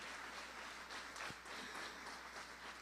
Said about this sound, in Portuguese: Vamos aplaudir ao Senhor por isto. Aleluias.